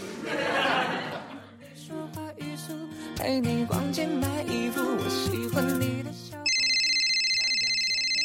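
A brief burst of chuckling gives way to a bright, plinking electronic phone ringtone for an incoming call from a wife, ending in a steady, shrill high-pitched ring that holds for the last couple of seconds.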